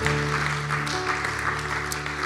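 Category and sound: crowd, audience applause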